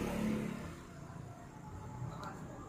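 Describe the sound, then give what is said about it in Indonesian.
A motorcycle engine rumbles past, revving briefly at first and then fading into a steady low drone. “anjir gara-gara motor gue jadi lupa gue yang jawab apa”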